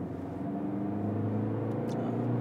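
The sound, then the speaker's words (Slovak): A two-litre TDI diesel car engine runs hard under acceleration in sport mode, a steady low droning hum with layered harmonic tones that hold loud and even throughout, with no voices over it. “Akože ide to, ale vôbec e, mám pocit z toho motora, z toho dvojlitrového litrového TDIčka, že keď ho chceš fakt, že nutí k nejakým výraznejším výkonom, tak sa na teba leda tak môže vysrať a vôbec nič nerobí, lebo sa mu nechce.”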